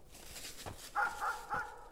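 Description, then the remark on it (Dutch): A farmer's dog, sent at people who have just walked onto the farmyard, gives three quick, sharp barks in a rapid burst after a soft thud. Nobody speaks. “We zijn nog maar nauwelijks het erf opgelopen of de boer stuurt zijn hond op ons af.”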